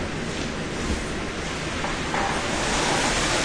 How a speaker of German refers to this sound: Das ist der Wawa-Effekt vom Regen.